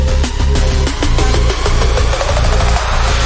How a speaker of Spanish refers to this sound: este tema que está sonando ahora... A ver. Este tema. Tiene un bajo raro, a ver si es ahora, no sé.